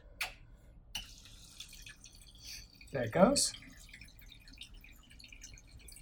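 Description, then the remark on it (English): Water runs steadily into a toilet tank as it refills after the water supply is turned back on, a low, continuous rushing broken by a few sharper splashes and drips near the start and middle. A man speaks briefly over it. “It's uh, filling up the tank again.”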